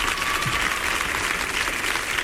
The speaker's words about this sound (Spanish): otra vez el aplauso para Carmen que entra dubitativa